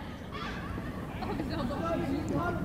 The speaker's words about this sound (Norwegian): var det noen trapper også, for dere hørte at det var noen som gikk